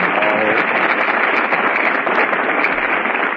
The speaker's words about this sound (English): All right, folks, you made your applause. Now lie in it.